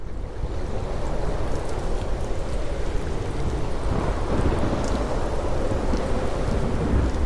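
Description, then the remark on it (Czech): A dense, steady roar of hail and rain pelting down in a thunderstorm from a very dark sky onto Calgary, with scattered sharp impacts and a deep rumbling underneath, continuous throughout with no voices. “Cesta do Calgary vede z hor zpátky do rovinatých prérií a nás hnala sněhová bouře a příval krup padající z apokalypticky tmavé oblohy rovnou do malého velkoměsta.”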